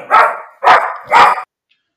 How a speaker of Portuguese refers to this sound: Oi, Pandora. Sim, um bom monstro, Pandora, concordo. Ela gostou, ela tá latindo brava pro trauma e pra depressão aqui.